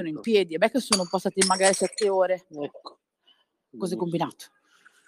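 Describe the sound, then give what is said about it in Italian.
A glass jar falls with a few quick, bright clinks and a brief clatter, partly buried under steady conversational talk, followed by a pause and more speech. “No, è caduto, è caduto un baratto.”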